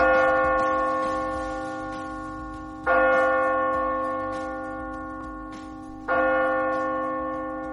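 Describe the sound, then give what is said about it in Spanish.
Three deep, resonant New Year's Eve bell chimes ring out slowly and evenly, each one loud at first and then humming away into a long fading tone, with no voices. “Campanadas, gran noche y después el misterio de 2024.”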